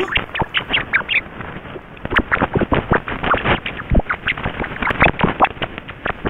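Pitch-lowered ultrasonic laughter of a tickled rat: a dense, continuous stream of rapid rubbery chirps and squeaks, fairly loud, with no talking.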